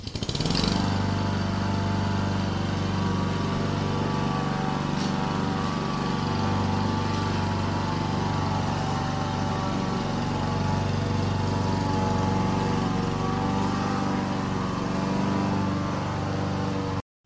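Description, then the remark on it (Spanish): A lawn mower engine drones steadily and loudly, its harmonic hum holding constant for the whole stretch with no voices over it. “gente, habréis escuchado ahora mismo una corta césped.”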